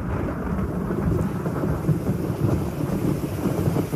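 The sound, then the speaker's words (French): Deep, continuous thunder rumbles and rolls through a heavy thunderstorm lasting twelve hours with lightning every ten seconds, a dense low roar that swells slightly without pause, with steady rain hissing beneath it and no voices. “12 heures avec un éclair toutes les 10 secondes. 12 heures de tonnerre non-stop, je vous assure que.”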